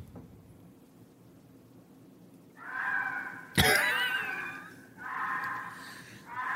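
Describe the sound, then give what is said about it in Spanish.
A fox lets out a series of harsh, raspy screams, three drawn-out shrieks with short pauses between them. The loudest begins with a sudden sharp burst, heard clearly against faint background hiss. “Güey, así gritan los animales, güey.”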